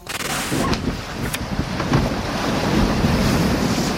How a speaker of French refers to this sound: Comme convenu, ils mettent rapidement à l'eau un petit canot à moteur hors bord et se dirigent vers Generali.